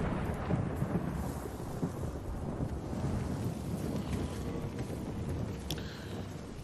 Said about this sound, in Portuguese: Se tem chuva, tem drama. Chuva na tela.